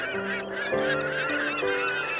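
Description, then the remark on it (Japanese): Penguins calling in a dense chorus of overlapping, harsh honking brays, steady and loud throughout, with several pitches layered together and no voices. “あっちにペンギンさんがいっぱいいるよ近づいてみよう 見て見てみんなペタペタ歩いてる”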